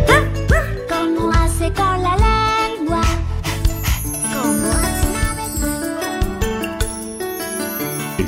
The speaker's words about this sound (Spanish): ¿Cómo hace al ladrar?